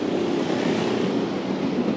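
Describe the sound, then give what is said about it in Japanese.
A dense, steady roar of street traffic in front of a train station, dominated by buzzing moped engines, continuous and loud with a low droning hum and no pauses, and no voices heard. “めっちゃうるさいなここやばいっすねめちゃくちゃだなもうなんかタバコ吸いながら原付乗ってる人とかいっぱいいたりして さすが駅前っていう感じですけど”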